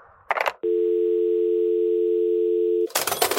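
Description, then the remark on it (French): A steady, unbroken telephone dial tone hums for about two seconds at a constant pitch while someone is being phoned, bracketed by short bursts of noisy clatter before and after. “Bon, je l'appelle.”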